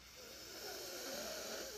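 A slow, deep breath drawn in while raising the shoulders, a soft airy hiss that swells slightly and holds steady for nearly two seconds, quiet, with no talking.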